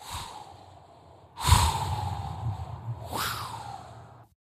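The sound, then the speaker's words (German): A voice imitates strong wind gusting outside, as heard in a room directly under the roof: a soft steady howl, then two strong breathy whooshes swell in, the second carrying a rising and falling whistle. Moderately loud, with no talking. “Draußen pustet der Wind so kräftig und Diego hat ein Zimmer direkt unter dem Dach, so dass er jeden Windstoß hört.”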